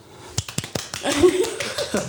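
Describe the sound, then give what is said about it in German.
Brief applause right up against the microphone, congratulating someone who just finished a master's degree: a few sharp, loud claps, then a quicker patter of clapping with a voice or laughter mixed in underneath. “Kurz Applaus, ich glaube es aber fürs Mikrofon zu laut.”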